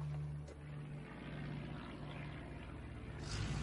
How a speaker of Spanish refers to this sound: ¡Eh, mamá! ¡Mira! ¡Son aviones! Un avión los sobrevuela.